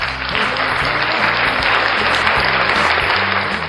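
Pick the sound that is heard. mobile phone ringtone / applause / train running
applause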